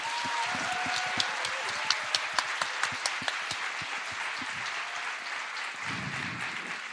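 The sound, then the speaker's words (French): A live audience at the Gaîté Lyrique in Paris applauds itself at the end of a live show, steadily for several seconds, a dense wash of many hands clapping with a few sharper individual claps standing out, then tapering slightly toward the end. “Vous pouvez vous applaudir, vous avez été super.”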